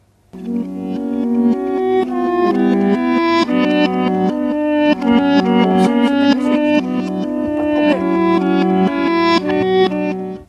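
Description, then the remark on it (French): Guitar music played in reverse, with pitched notes that swell up gradually and then cut off abruptly, giving a steady, sucking, backward pulse. It stays loud throughout, with no voices. “On entend des rythmes, des hauteurs, c'est de la musique. Peut-être que vous êtes posé des questions sur l'instrument.”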